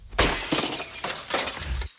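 Windshield glass shatters in a sudden loud crash, followed by about two seconds of bright, crackling fragments and tinkling shards scattering, with a couple of renewed bursts before it cuts off.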